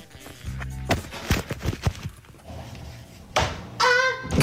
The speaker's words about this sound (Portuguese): Uh, portanto, ela, ela deu um espaço para trás, bateu aí com as costas, soltou um gritinho. O gritinho, há que dizer, é ótimo.